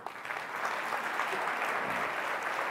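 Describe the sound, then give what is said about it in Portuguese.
A church audience applauds the Holy Spirit together, a dense, steady wash of many hands clapping that stays at an even, fairly loud level throughout, with no voices standing out. “Dê um aplauso a Ele.”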